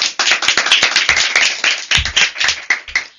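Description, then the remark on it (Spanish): A TV quiz show audience bursts into applause for two contestants after a Christmas-themed question, a dense, steady patter of many hands clapping at once, loud and sustained for a few seconds with no one speaking. “Démosles un gran aplauso a ambos concursantes.”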